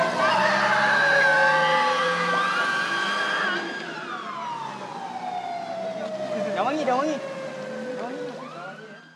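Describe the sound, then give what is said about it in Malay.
A loud siren from a Black Maria police van, carrying women participants and organisers who had been detained to the IPD police station, holds a steady high wail, then slowly winds down in pitch and fades, with excited voices rising and falling underneath toward the end. “sebentar tadi kita baru mendengar rakaman suasana apabila peserta dan penganjur wanita dibawa ke IPD dan wangi dalam sebuah Black Maria.”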